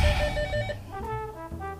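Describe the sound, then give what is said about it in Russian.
A telephone rings in a polyclinic with a bright, steady electronic tone, fairly loud. The ring pattern shifts partway through, with faint room noise underneath and no one speaking. “Вот звонят.”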